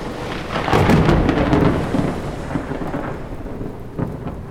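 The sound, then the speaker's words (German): A thunderstorm with a deep, rolling rumble of thunder that swells early and slowly fades, over a steady hiss of heavy rain continuing throughout, with no voices. “Doch der Sturm zog sich zusammen”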